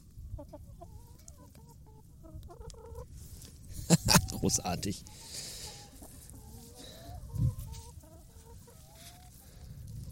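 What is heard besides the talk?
chickens clucking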